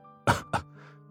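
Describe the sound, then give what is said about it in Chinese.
A hoarse man who has just woken up coughs twice in quick succession, two short harsh bursts with a hoarse, rough texture, followed by a faint raspy exhale over a steady low hum. “男人的声音很嘶哑。看到沈曼玉，有些激动的叫了一声，然后不停的咳嗽着。”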